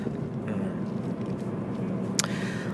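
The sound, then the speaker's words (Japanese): Steady low rumble of road noise inside a car driving at night, at 23:04, from Kurume toward Fukuoka City, a continuous engine and tire drone with a brief sharper click or tick near the end. “今ですね久留米の方から自宅のある福岡市に向かって車を走らせております時刻は夜の23時4分ですね”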